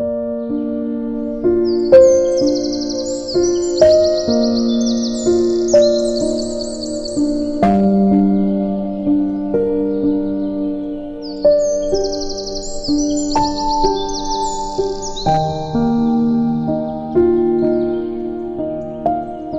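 Bursts of bright bird chirping and trilling come in two clusters, layered over gentle, steady instrumental music with sustained notes; the birdsong sits clearly above the music, with no talking.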